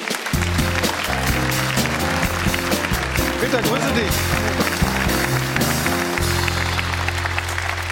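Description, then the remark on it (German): A studio audience applauds steadily for the whole stretch as Peter Sippel, sporting head of the Bundesliga referees, is welcomed: a dense, even wash of clapping, while a man speaks a brief greeting over it and low tones hum underneath. “Hier ist Peter Sippel, hallo. Applaus”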